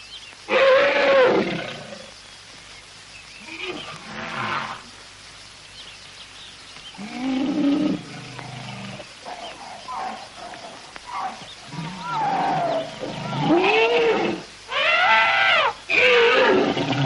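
animal, elephants trumpeting

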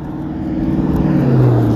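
vehicle, car driving past

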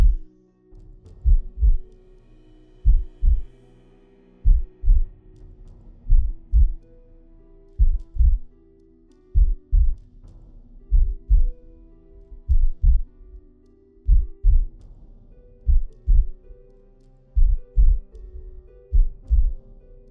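human body sound, heartbeat

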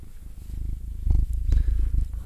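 animal, cat purring

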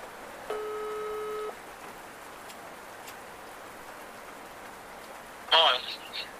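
signal or alarm, telephone ringback tone

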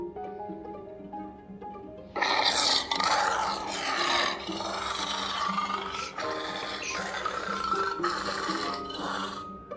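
animal, lion roaring

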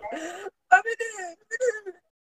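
human body sound, child whimpering and crying

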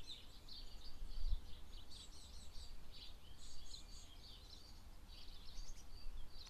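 bird, birds singing

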